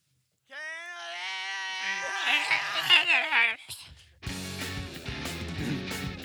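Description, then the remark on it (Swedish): A person lets out a long, strained vocal scream imitating panic, rising and wavering for about three seconds before breaking off, followed by a noisy burst of other sound. “Den har ju ett coolt panikvrål också. Är ni med på ett skrik? Ja, ja, jag kör.”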